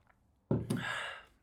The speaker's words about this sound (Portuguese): Vou só dar aqui um golinho da minha água.